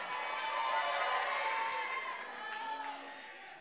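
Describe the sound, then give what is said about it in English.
Audience members shout out together in a loud, overlapping burst, with whoops and cheering blending into a dense roar that fades slightly toward the end. “all right, I'm going to throw this footnote out to all you that just shouted out.”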